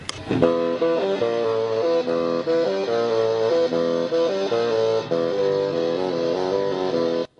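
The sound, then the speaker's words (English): A bassoon fitted with a pickup and played through an effects pedal that adds distortion, its buzzy, gritty tone holding sustained notes in a steady, loud phrase with stacked harmonies in fifths, without any talking. “This adds distortion.”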